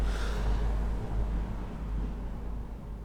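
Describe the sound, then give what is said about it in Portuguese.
A car passes by, its broad whooshing rumble loudest at the start and then fading away, leaving a steady low drone of traffic noise. No one speaks. “passou o carro que desculpe”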